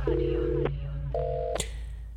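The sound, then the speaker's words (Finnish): A telephone is dialed to call the on-duty fire chief in Pirkanmaa for Radio Nova's night radio show: two keypad tones beep one after another, each about half a second and sharper pitched the second time, with faint clicks and a low steady hum underneath. “meillä on puhelimen päässä yön henkilö, jolle me soitetaan aina kerran tunnissa.”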